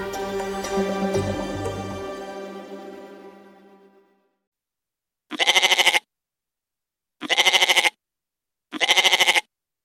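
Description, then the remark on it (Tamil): Goats bleat three times in a row, each cry loud, wavering and about a second long, separated by short pauses, after a fading stretch of music. “ஆட்டுக்கும் தமிழ் பண்பாட்டுக்கும் நெருக்கம் கொஞ்சம் அதிகம்தான் போல ஆடு குறித்து எத்தனையோ பழமொழிகள் தமிழில் உள்ளன”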